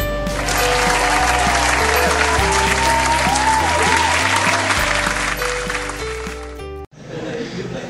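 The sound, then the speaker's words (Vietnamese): Loud, steady applause welcoming a guest, mixed with upbeat music and a stepping bass line, running for several seconds before a sudden brief drop, after which the clapping continues on its own. “Mọi người cùng vỗ tay chào đón bạn nha.”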